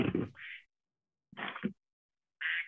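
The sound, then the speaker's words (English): A phone's duck-quack alarm tone goes off, with three nasal quack bursts separated by short pauses. It is clear, with no talking over it. “Do you oh. also use the duck sound?”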